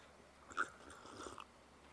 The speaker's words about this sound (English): Let me just have a little sippy sip.